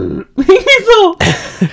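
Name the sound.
voice imitating a burp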